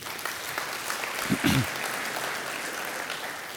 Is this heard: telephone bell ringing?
no